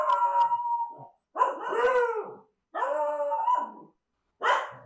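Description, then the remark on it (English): Several dogs howl and bark together in long, wavering bursts separated by short pauses, fairly loud, with no talking over them. “These dogs are so.”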